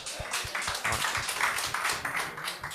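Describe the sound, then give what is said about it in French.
A crowd applauds steadily, a dense patter of many hands clapping at a fairly even volume throughout, with no voices heard over it. “Jesse Shea qui est là. On applaudit.”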